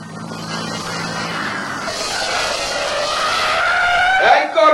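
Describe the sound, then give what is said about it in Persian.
A truck engine roars louder as it approaches, then its brakes and tires let out a long, high screech that bends downward as it skids to an abrupt stop. “این یه کامیون داره میاد عیبی نداره اه، بهتر شما همینجا قایم شین اه، تا کامیون رسید من میپرم جلوش تا وایسد شما سوار شین”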